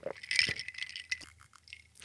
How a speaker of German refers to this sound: Heute auch mit Eiswürfeln, wie man hört.